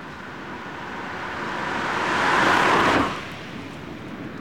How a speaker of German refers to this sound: Test 2. Auto los. Dasselbe Auto rollt im Leergang, also ohne laufenden Motor durch.